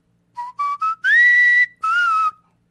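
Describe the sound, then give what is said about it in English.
A person whistles a short melody from a 1980s song: three quick rising notes followed by two longer sustained tones, clear and bright with no talking. “Would you favor us by whistling one of your favorite songs from the 80s?”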